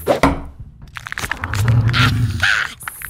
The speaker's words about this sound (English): You hold it here like this. Okay. And then you knock it on the wall to see if the crab makes that weird noise again, like this.